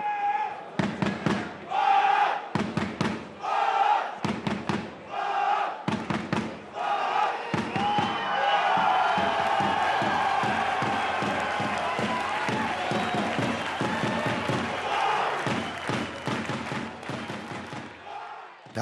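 A football stadium crowd at Valby Idrætspark, Boldklubben Frem's home ground, cheers and chants before kickoff of the year's last first-division match against Fremad Amager, a loud roar swelling under sharp rhythmic claps and bangs, with bursts of shouting rising and falling throughout.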